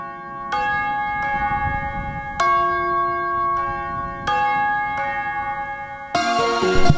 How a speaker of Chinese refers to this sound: 熟悉的钟声又来了